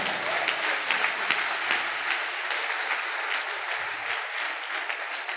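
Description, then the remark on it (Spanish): A church audience claps steadily and continuously, a dense, even wash of applause for the Lord that holds at the same lively level throughout without any voices over it. “Denle ese aplauso al Señor.”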